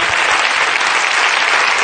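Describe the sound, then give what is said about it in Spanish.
Audience applause for a company from Jaén, Spain, the first in Spain to introduce a four-day working week; a dense, steady wash of many hands clapping at once, loud and even with no voices standing out. “Un aplauso para Jaén.”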